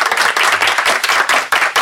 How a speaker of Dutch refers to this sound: Ja, applaus. Mooi.